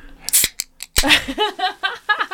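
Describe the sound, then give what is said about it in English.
A seltzer can cracks open: a sharp metallic click and short fizzing hiss, then a second crisp pop about half a second later, followed by a few brief vocal sounds. “It's actually really just a seltzer.”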